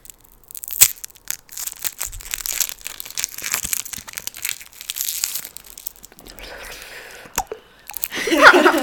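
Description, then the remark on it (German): Crinkly, crunchy noises of small Schokobons chocolate candies being chewed and handled, a steady stream of soft crackling bursts with a sharp snap near the start and louder rustling at the end. “Ey, es hört sich aber wild an, Digga. Wenn, wenn man diese kleinen Schokobons so, so, ja, wild.”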